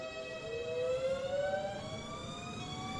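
A new-generation Intercity train whines as it pulls away: several steady electric tones glide upward in pitch together over a low rumble, with no voices.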